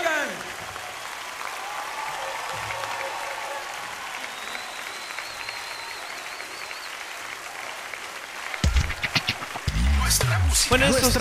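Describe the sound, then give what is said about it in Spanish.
A large crowd applauds and cheers for the Lord, a steady, dense wash of clapping with scattered cheers that swells louder near the end with excited shouts and whistles. “Otro es el artista, otro es el artista tu mejor porra, tu mejor gritería, tu mejor barra, tu mejor grito, tu mejor aplauso al único artista, al único artista.”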